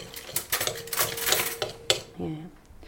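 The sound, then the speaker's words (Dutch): A knife cuts chicken fillets on a board with a run of crisp knocks and scraping clatter, followed by a brief murmur of a voice near the end. “Misschien kan jij eh, al beginnen met het snijden van de kipfilets?”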